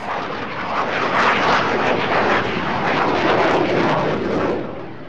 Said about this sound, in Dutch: Dat hem ook in een Alpha-jet eh, op, eh, denk op 100 meter boven de Zillion, eh, dus met een straaljager voorbij gevlogen is.